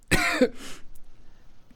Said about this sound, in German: Husten! er hustet noch ein paar Mal, also.